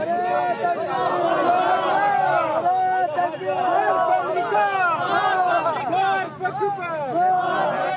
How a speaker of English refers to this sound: crowd starts chanting Allahu Akbar, which means God is greatest. Some of them are also shouting Amarg al Amerika, they're just chanting death to America, but they seem friendly at the same time.